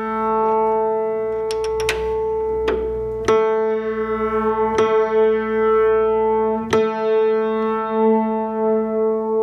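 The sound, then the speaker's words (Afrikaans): A single piano note A, slightly out of tune, struck again and again, its ringing tone wavering with beats that slow and smooth out as the string is brought into tune to a clean tone. Fairly loud, no voices. “jy het nou-nou gehoor toe ons daai A wat bietjie vals was ingestem het, het hy skoon toon gemaak.”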